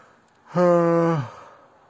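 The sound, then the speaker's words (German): A single drawn-out, voiced yawn, fairly loud, holding a steady tone for under a second before sliding lower and trailing off into quiet. “Ja, wir haben 21.54 Uhr und irgendwie ein paar Sekunden und äh, ja, muss mal ganz kurz gähnen.”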